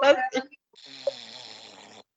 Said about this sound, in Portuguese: Tem alguém, tem alguém roncando, tem alguém durante a gravação? Aqui, não, velho. Tem alguém dormindo?